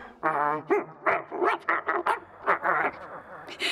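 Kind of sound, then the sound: animal, dog barking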